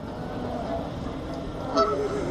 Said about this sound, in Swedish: Här är en eh, fågel. Stor fågel, inte en svan dock, eh, som eh, låter.